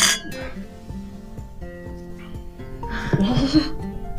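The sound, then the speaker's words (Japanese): Glasses of rosé wine clink together in a toast, leaving a clear, sustained ringing tone, with light laughter and murmuring voices rising near the end. “じゃあ、じゃあせっかくなんで。はい。はい。じゃあ乾杯。乾杯。”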